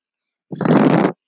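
A wolf blowing hard on a shelter: a single hard blowing puff, about half a second long, rough and breathy with a buzzing, lip-flapping edge, starting abruptly and cutting off just as suddenly, with no talking around it.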